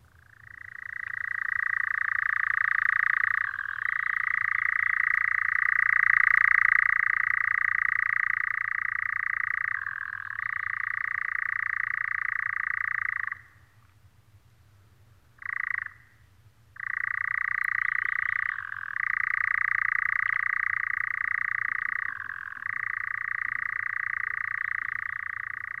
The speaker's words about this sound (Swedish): Vi ska ta och lyssna på nattkärrans ljud eh, för er som inte har hört det tidigare.